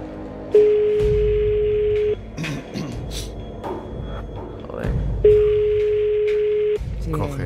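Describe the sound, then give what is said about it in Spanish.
A telephone line ringing tone sounds twice while calling a private home phone, each a steady, even-pitched beep lasting about a second and a half, separated by a pause of a few seconds, over low background noise. “Hemos colgado porque no puede salir su teléfono de antena.”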